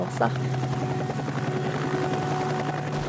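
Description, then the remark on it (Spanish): A helicopter drones steadily overhead, its rotor producing a constant low throbbing hum with a pulsing beat, loud and sustained throughout. “Cuando ya no podían y vieron que nos alejábamos más a la montaña, entonces ya este, bombardeaban con helicópteros la montaña.”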